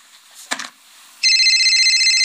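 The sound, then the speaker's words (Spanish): A brief knock or thud, then a telephone starts ringing with a steady, loud electronic trill that continues to the end without any voices. “Cualquier día suena su teléfono y lo que escucha al contestar es alguien que amenaza con hacerle daño a usted o a alguien cercano si no da dinero.”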